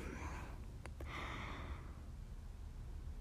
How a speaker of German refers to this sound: Tut mir leid, wenn ich zwischendurch Pause machen kann. Muss, aber ich muss einfach die ganze Zeit gähnen. Das ist echt früh noch. Und ich bin gestern spät ins Bett gegangen.